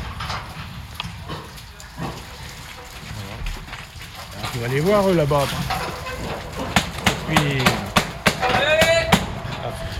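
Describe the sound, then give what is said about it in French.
Pigs squeal in bursts amid hoof clatter and knocking in a barn as they are sorted after being weighed, those reaching 110 kilos given a small mark on the right ear, with a person speaking over the commotion. “Ils sont en train de trier les cochons, parce qu'ils ont été pesés.”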